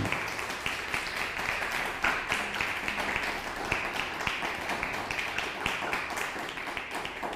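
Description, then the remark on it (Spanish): Sustained audience applause, a dense wash of many hands clapping steadily at an even loudness for several seconds, with a few sharper claps standing out and no talking. “Nuevamente con ustedes, amados hermanos, un fuerte aplauso.”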